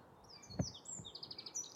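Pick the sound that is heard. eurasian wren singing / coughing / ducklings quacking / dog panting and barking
eurasian wren singing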